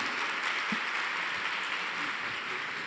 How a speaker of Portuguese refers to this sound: Vamos aplaudir.